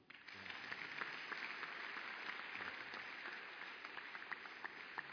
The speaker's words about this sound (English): Thank you, Father. Hey. Clap for the Lord.